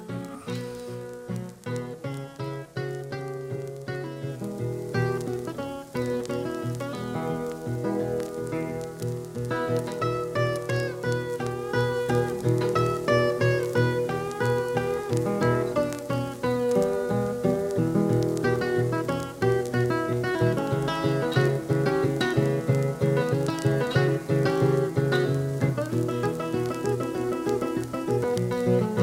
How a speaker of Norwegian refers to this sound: ta en sigarett, eller hva det nå vil at du skal ta, og hør på …